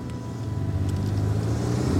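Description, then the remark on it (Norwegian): A car engine runs with a steady, deep rumble, fairly loud, holding an even drone for the whole two seconds with no voices, as the car is started at 8:18 and driven off toward Asker. “Klokka 18 minutter over åtte starta jeg bilen og kjørte mot Asker.”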